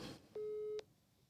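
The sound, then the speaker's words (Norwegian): A single steady telephone ringing tone during a call, one clear electronic beep lasting under half a second, heard alone with a quiet line before and after. “Ja, han pleier å svare når, når vi ringer.”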